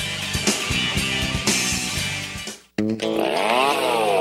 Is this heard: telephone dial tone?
no